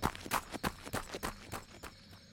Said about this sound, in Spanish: Oímos otras pisadas y el crujido de unas ramas.